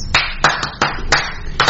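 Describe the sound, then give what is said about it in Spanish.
A short burst of applause: sharp, bright hand claps land in an uneven rhythm, some doubled, at a fairly loud, steady level with no voices over them. “¡Ay, ah, aplausos!”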